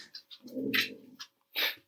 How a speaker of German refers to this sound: Hier kommt nur der Hund rein.